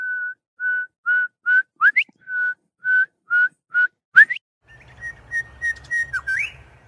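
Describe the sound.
A person whistles a songbird-like phrase imitating a bird's whistling cadence: a run of short, steady notes ending in upward-swooping flourishes, then softer repeated whistles over faint background noise, clear.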